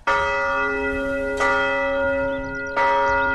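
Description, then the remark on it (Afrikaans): A large bell in the tower of a town hall rings out loudly early one morning, three strong strikes about one and a half seconds apart, each leaving a rich, sustained hum that carries into the next. No voices are heard. “Maar toe een oggend baie vroeg lui die groot klok in die toring van die dorp se stadsaal.”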